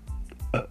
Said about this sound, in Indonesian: sebentar bentar gua mau sendawa